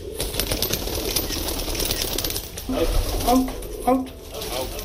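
Carrier pigeons, being trained by police in Odisha state, India, to carry messages, coo in low, soft bursts while wings flap and rustle, set against a busy, noisy background with a steady hiss.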